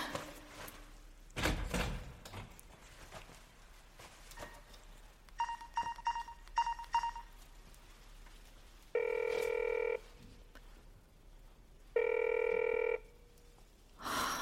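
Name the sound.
telephone ringing unanswered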